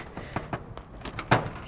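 A door behind thick brush is rattled and tugged without opening: a quick series of dull knocks and clunks over a second or two, ending in one louder jolt. No one speaks.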